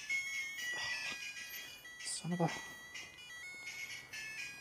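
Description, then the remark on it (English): A new mobile phone's ringtone plays a bright, steady electronic melody throughout, not loud, while someone mutters a few words over it partway through. “New phone. The uh, controls are all in slightly different places.”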